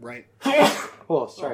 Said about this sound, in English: Oh, bless you there. Um, yeah, I'm still getting over a cold.